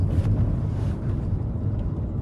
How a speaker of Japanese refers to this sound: わかりますかねちょっと車の中で運転しながら収録してるんですけども、えー、今からお仕事に向かうところです